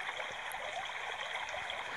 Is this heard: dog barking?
no